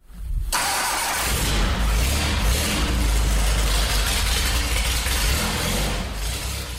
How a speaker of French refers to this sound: Cette monoplace de fabrication québécoise, il la baptise la Magnum. Gilles a acheté la MK3, la voiture que vous avez entendue en introduction.